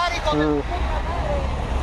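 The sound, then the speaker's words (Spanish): Steady low rumble of road traffic at the Emiliano Zapata roundabout, where Avenida de los Deportistas meets Avenida Carlos de la Madrid Béjar, with vehicles droning continuously and a brief tonal blare rising over the noise early on. “Ahorita pues este, ya ha disminuido el tráfico vehicular, sin embargo pues,”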